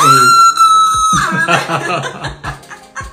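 A loud, high-pitched celebratory shout held for about a second, strong, then breaking into laughter and lively chatter.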